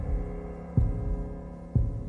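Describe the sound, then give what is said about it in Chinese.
Two deep, muffled heartbeat thumps land about a second apart over a steady low droning hum, with no voices. “听，你越走越近的脚步，听所有中国人的心跳和叩问。”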